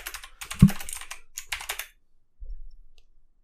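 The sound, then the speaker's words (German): Rapid keyboard typing of a chat message on a computer keyboard: a quick burst of clicky keystrokes with one heavier thump, a short pause, then a few more taps. No voices are heard. “ich schreibe ihm mal, dass ich ihn höre.”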